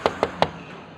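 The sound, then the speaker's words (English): Three firm knocks on the front door of a small single-story house in quick, slightly uneven succession, clear, followed by quiet with no voices and no answer. “You knock on the front door, no answer.”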